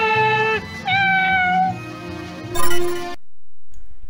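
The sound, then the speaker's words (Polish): A short, loud jingle of bright, wavering tones with gliding, almost meow-like notes over a low backing, swelling near the end before cutting off abruptly into near silence. “Okej, okay, to jest dżingiel, którego nie chcecie słyszeć, kiedy akurat mama jest w pokoju.”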